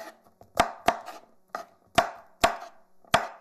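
A knife chopping green onions: about six sharp, crisp thwacks at an uneven pace, with faint scraping in between. No voices.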